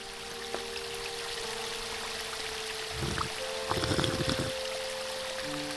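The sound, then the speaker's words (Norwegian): Water pours into a clean glass in two short bursts, a splashing, gurgling stream that rises briefly over a steady background hum, fairly quiet. “finnes det noe deiligere enn et rent glass med vann.”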